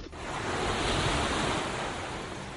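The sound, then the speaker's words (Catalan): Ocean waves break and wash onto the shore in a steady, broad roar, fairly loud, with some wind buffeting the microphone and no voices. “Les onades, el mar, desconnexió total.”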